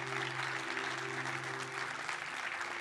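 A church audience claps in sustained, dense applause to God during a Spanish-language sermon, steady and fairly loud throughout, with a low hum held underneath and no one speaking.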